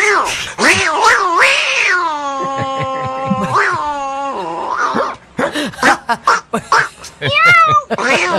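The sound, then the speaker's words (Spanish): A woman's voice imitates a cat, drawing out several loud, wavering meows in a row, then breaks into shorter choppy yowls and squeaks near the end. “yo escuché un audio de una muchacha que ya se lo insertaron y que eh, eh, les va a poner el audio. Tú sabes la verdadera gata.”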